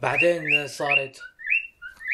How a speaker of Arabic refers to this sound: هذا عصفور عندهم